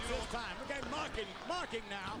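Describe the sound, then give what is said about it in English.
A dull thump as wrestler Bam Bam Bigelow pushes Brett into the corner and whips him back first into the padded ring ropes and turnbuckle, heard beneath continuous excited commentary from a man talking throughout. “Pushes Brett in the corner, whips him. Oh, back first goes Brett.”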